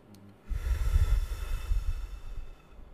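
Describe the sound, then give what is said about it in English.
A single long, deep inhale through the nose during a guided mindful breathing exercise, a steady airy rush that swells after a brief pause and holds for about two seconds before tapering off, with no talking. “Your reactions, the way you engage, what you give energy in the nose. Two more. Last one, real deep.”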